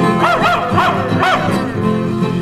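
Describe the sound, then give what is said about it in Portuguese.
A dog barks several times in quick, uneven bursts, loud, over a steady background hum that continues after the barking stops. “Sai cachorro.”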